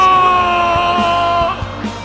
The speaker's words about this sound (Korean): 우리 주여 한번 외치고 부르짖어 기도하며 나갑니다. 주여